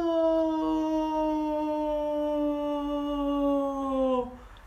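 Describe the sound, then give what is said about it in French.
A voice imitates the cry of the Buzz toy falling from a very high beam in a game: one loud, sustained wail that slowly sinks in pitch for about four seconds before cutting off abruptly. “Et, et en fait, quand tu tombes, le, jouet, le buzz, il tombe, il fait non”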